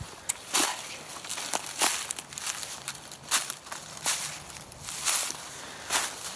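Footsteps crunch through branches and dry leaves in the woods by the Méliles river, in an irregular walking rhythm, each step a sharp, bright crackle over a steady rustling hiss, with no one speaking.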